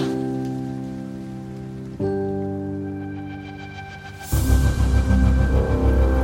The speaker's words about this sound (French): En partant en juillet, je n'aurais jamais pensé partir sous l'orage.